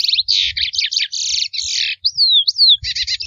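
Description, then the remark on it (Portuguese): A lesser seed-finch (curió) sings a rich, continuous song of rapid warbled phrases and clear whistled slurs, loud, with no talking over it. “curió tem uma vocalização muito bonita e por isso é muito perseguida.”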